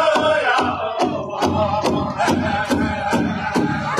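A loud crowd at a drum ceremony clamors continuously while a steady drum pounds underneath at an even pace, roughly two beats per second, each hit sharp and booming through the chatter and shouting.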